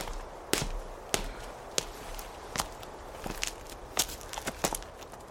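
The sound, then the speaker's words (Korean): Footsteps of a woman coming down stairs toward a gate: a series of sharp, irregular treads, evenly spaced at first and then quickening toward the end, over a low steady background hum with no talking. “여자가 잠시 주춤하더니 계단을 내려오는 것이 대문 사이로 보였다.”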